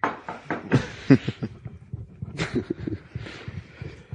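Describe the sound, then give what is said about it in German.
A quick series of sharp knocks on a wooden table, fairly loud, tapping in an uneven rhythm over a few seconds. “Dafür klopfe ich nochmal auf den Tisch”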